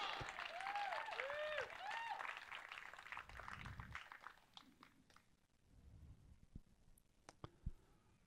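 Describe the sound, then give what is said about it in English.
A church audience bursts into applause with a few rising whoops after it is announced that another person is getting baptized that day; the clapping quickly thins out into scattered, isolated claps and faint murmuring before dying away. “That was a horrible clap. Come on now.”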